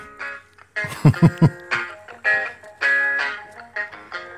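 A tinny, melodic ringtone plays a short song intro: bright harmonic tones with a few punchy low beats early on, then sustained notes in a rising and falling pattern, with no talking.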